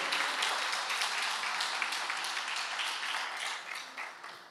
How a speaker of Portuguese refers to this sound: Se você, por costume, tiver, aplauda o nome do Senhor com as palmas. Bem alegre.